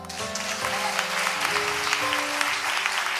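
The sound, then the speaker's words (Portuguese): An audience applauds Jesus for the God Provider church's second-campus project, a dense wash of clapping filling the whole clip, with sustained musical tones humming underneath. “Para você que ainda não viu, vamos aplaudir Jesus por ele.”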